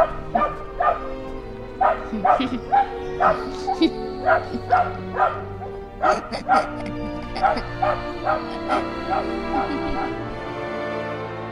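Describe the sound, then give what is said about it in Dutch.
A small dog yaps in quick, high-pitched bursts mixed with whining whimpers, repeating steadily for several seconds, fairly loud over a faint steady background hum. “maar waarom blijft die hond huilen?”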